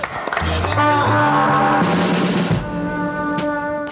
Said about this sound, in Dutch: Eh, en dat gelegenheidskoortje was zo trots op zichzelf dat ze, dat is wel heel grappig, spontaan op het eind begonnen te klappen voor zichzelf. Waarschijnlijk om, om de, de spanning een beetje af te reageren.